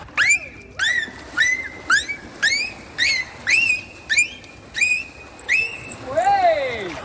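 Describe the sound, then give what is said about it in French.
A dolphin's signature whistle, its own individual call that conveys its identity to others in the group, repeats about ten times in a steady rhythm, each a bright falling-then-level tone, ending with a longer rising and falling sweep, clear with no talking. “Il y a des choses qu'on sait, ils ont ce qu'on appelle un sifflement de signature.”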